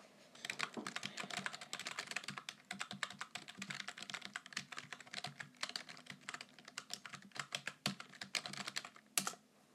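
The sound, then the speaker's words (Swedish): Someone types notes on a computer keyboard, a quick irregular stream of sharp, fairly soft key clicks running without pause for about ten seconds, with no one speaking. “Ja, jag antecknar det här.”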